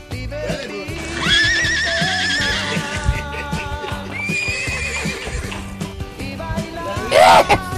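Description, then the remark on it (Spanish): A horse whinnies in long, quavering cries, then again more briefly, ending with a sharp, high neigh, all over a steady rhythmic backing. “El único caballo que se desaparece, mira.”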